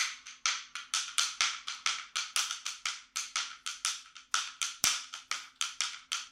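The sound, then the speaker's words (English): Bones percussion, held between the hands and played by throwing the hands from side to side, clacking in a rapid, steady rolling rhythm of sharp wooden clicks, grouped like triplets, fairly loud with no talking. “You sort of hold them between your hands and you throw your hands from side to side and you can make a sort of like triplet sound like this.”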